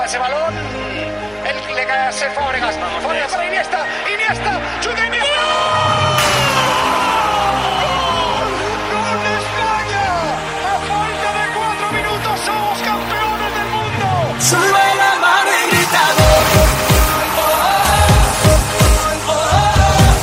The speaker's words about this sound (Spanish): Esto fue un temazo del verano.